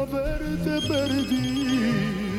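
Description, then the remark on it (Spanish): A telephone rings with an incoming call to a radio call-in show, playing a steady melodic ringtone whose tones step up and down in pitch for a couple of seconds, fairly loud, with no voices. “pues este 2020 vamos a seguir con la misma línea, haciendo radio sin majaderías y a la antigüita con llamadas, con llamadas.”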